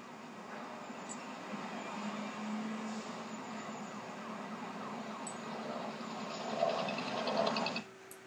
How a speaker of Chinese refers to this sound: 哦，歌曲的最后还带了一个我们车子开走的声音哈，我觉得这个也是这首歌还有这个 MV 非常成功的地方，让你非常的沉浸在那个情绪里面。